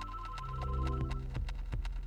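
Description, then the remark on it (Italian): A telephone rings with a steady electronic tone, repeated bursts over a low rumbling background, clear, with no one speaking, in the newsroom of the Frankfurter Allgemeine Zeitung, with Angela Merkel calling. “Squilla il telefono nella redazione del Frankfurter Allgemeine Zeitung.”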